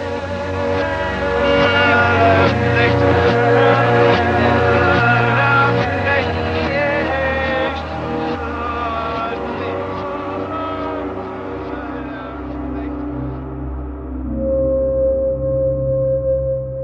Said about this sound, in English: Is it possible that this could be preparing us subconsciously through backward masking to accept a child that is coming that is none other than the son of Satan? Let me play that for you backwards, and you tell me who the child is. Listen carefully.